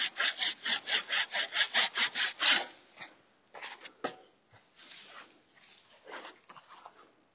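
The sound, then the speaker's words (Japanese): Steady strokes of a saw cutting a large tree branch that overhangs a small fruit tree, about a dozen in quick rhythm, then give way to irregular creaks and splintering cracks as the branch strains. No one speaks. “メシメシっととか聞こえたかと思います。”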